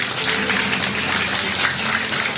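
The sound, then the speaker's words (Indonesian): An audience applauds: many hands clapping in a dense, steady wash of sound that holds at an even, fairly loud level throughout, with no voices. “Tepuk tangan saya, Pak”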